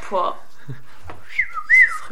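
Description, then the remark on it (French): A person whistles a short two-note call, a quick rising tone followed by a louder sustained note, after a brief vocal sound at the start. “ça arrive vraiment euh, que le, le, fils siffle la mère sans vidéo gag”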